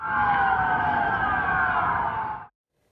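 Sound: ambulance sirens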